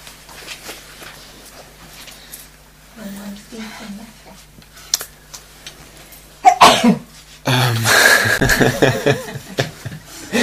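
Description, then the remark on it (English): A sudden, loud sneeze bursts out after a quiet stretch, followed by a dense, noisy spell of laughter and commotion. “Uh, that was universal consciousness sneezing transmission.”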